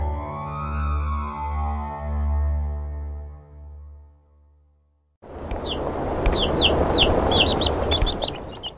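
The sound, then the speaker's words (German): After a sustained, droning tone fades out, a rapid series of high, thin peeps from chicken chicks hatching in an incubator starts, repeated about a dozen times over a steady background hum. “Erst von innen ein kleines Loch picken, ordentlich Luft holen, kräftig piepsen und ein Riss trennt den Deckel vom Rest des Eis.”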